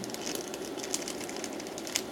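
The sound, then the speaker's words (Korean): A kettle rumbles as its water heats, giving a steady, quiet rattling hiss with fine crackles throughout and two brief sharper ticks; no one speaks. “지금 다글다글 잡음 들리는 거는 주전자 때문에 그러는 거고요.”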